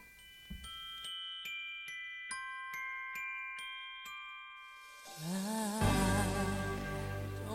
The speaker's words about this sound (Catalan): Doncs sí, aquí, aquí sentim les campanes, no?